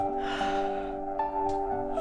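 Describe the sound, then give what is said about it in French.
A long, breathy open-mouthed yawn, deliberately forced wide to relax the jaw, drawn in and let out over a steady, soft musical drone that continues throughout. “détendez votre mâchoire en vous forçant à bailler à pleine bouche”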